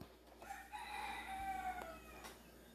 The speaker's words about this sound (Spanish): Bendito sea el gallo en la mañana.